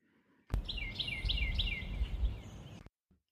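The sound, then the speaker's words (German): Birds chirp outside behind closed windows in the daytime in spring, a quick run of about four bright, descending tweets in a row over a steady low rumble of background noise, with no one talking. “Also übrigens, falls ihr da irgendein Zwitschern hört, es ist untertags und hinter mir zwitschern die Vögel.”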